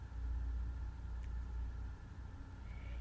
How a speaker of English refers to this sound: Reese steered her small car down her Aunt Letty's long, tree lined driveway